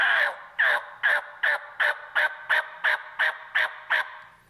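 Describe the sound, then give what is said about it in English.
A person imitates a turkey's yelp with the mouth, closing the lips and dropping the jaw at the end of each note to cut it off: eleven short, raspy, evenly spaced notes, fairly high and strong, each clipped off sharply, with no talking in between. “letting the air go through the yo, and then at the end you close your lips to cut it mm-hmm. off, and it gives it the yelp, yelp.”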